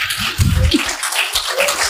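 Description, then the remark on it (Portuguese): A short round of applause called for during a live show: dense, crackling hand claps blur into a steady hiss that holds at an even loudness for about two seconds, with no voices over it. “Ao vivo, aê, uma salva de palmas.”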